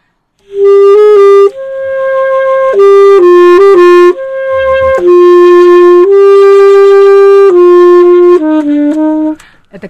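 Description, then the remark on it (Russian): A solo saxophone plays a lyrical classical melody, loud and close, moving through a series of sustained notes with short breaks between phrases, with no voices, before stopping near the end. “Но ну, как бы я, да, например, саксофон уже звучит так.”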